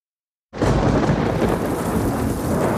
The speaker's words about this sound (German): Während der Nacht haben wir ein fürchterliches Gewitter mit vielem Donner und Blitzen. Der Regen kommt in schweren Güssen und macht den Boden sehr weich.